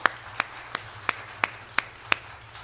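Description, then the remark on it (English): An audience at a morning conference gathering applauds a singer with a steady run of seven sharp, evenly spaced claps, crisp, over a low background hum with no talking. “can I ask everybody to give a round of applause for Meredith”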